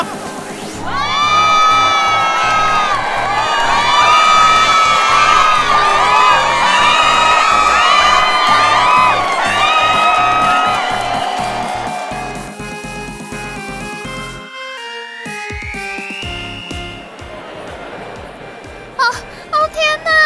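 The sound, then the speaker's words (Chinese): A large crowd at a fan event claps and screams loudly to welcome the star, with many shrill, high-pitched shrieks layered over steady applause for about ten seconds before the noise gradually fades and thins out. “我们活动准备要开始喽，让我们掌声加尖叫，欢迎今天的主角！”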